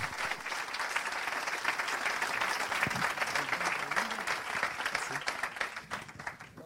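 A crowd applauds steadily and loudly for a company's members at an evening awards ceremony, a dense wash of many hands clapping that holds strong throughout and starts to thin slightly toward the end.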